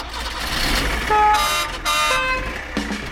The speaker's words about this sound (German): Ein himmelblauer Trabant rollte durchs Land mitten im Regen.